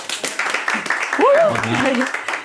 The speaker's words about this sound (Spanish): Un fuerte aplauso para los dos.